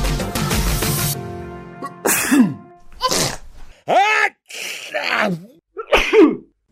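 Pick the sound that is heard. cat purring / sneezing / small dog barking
sneezing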